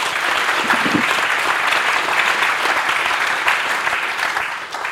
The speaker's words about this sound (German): Herzlich willkommen, Andres. Applaus